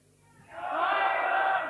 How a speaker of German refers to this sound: Wir alle rufen, wollen wir diesen spanischen Edelmann reinlassen?